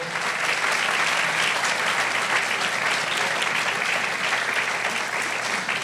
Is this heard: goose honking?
no